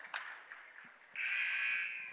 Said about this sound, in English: And a quick whistle for a travel. Not sure about that one, but that's what the call is